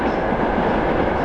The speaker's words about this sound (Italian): Vediamo, vediamo se ancora la città ci regala quella pace, quella tranquillità che conosciamo. A parte il treno